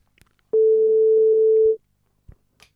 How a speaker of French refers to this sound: Première sonnerie chez Juliette à 16h04.